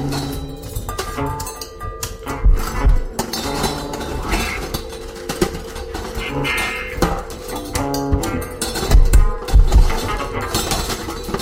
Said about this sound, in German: Und dann gibt es eine Passage, die nach Improvisationen mit Besteck auf einem Küchentisch klingt. Sie ist für mich an der Grenze des Genießbaren.